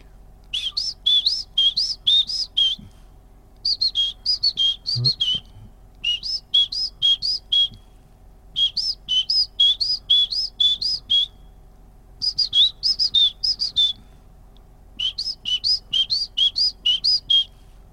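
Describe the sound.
A person whistles an imitation of a great tit's call: repeated bright, high two-note phrases in steady bursts, each run of quick notes separated by short pauses, with no talking.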